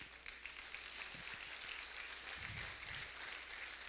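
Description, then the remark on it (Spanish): An audience applauds the Lord together, a steady wash of many hands clapping for several seconds at a moderate level, with no one speaking over it. “Dele el aplauso al Señor.”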